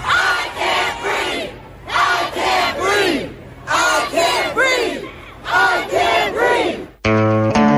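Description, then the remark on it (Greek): A large crowd in a North American city chants a protest slogan in loud, rhythmic bursts, repeating the same phrase about four times with brief pauses between, before the chant cuts off abruptly into a steady electronic tone. “Το σύνθημα που δονεί τη πόλη τη ε, Βορειοαμερική αυτέ τι μέρε και αυτέ τι νύχτε.”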